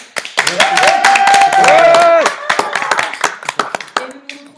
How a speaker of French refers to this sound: Tonnerre d'applaudissements.